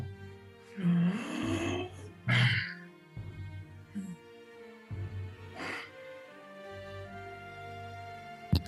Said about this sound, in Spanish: Escucha una respiración brutal, gigantesca, que ocupa todo.